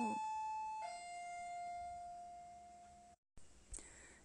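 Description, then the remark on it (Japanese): An electronic doorbell chime rings inside a detached house as a visitor, a renovation salesperson, arrives: two clear tones with the second note ringing on and slowly fading, followed by a brief silence and a soft click. “今チャイムが鳴ったんですけれども来客が来ましたもうねうち戸建てなんであのろくなのが来ないでどうせリフォームかなと思ってたらリフォームだったんですけれども”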